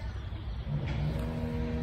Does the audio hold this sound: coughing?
no